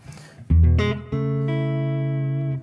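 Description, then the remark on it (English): An electric guitar played through the vibrato of a Vibrolux amp turned way down to low volume: a few quick picked notes, then a chord left ringing steadily for more than a second before it is cut off. No one speaks. “So that's that's the vibro. Sounds killer.”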